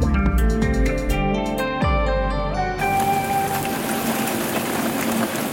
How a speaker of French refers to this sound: C'est de la pluie, c'est de la grêle, Kevin, mais aux Émirats arabes unis ce qui n'est pas banal. Et non, c'est pour le moins inhabituel parce que la péninsule arabique est avant tout un désert aride, d'où la surprise depuis dimanche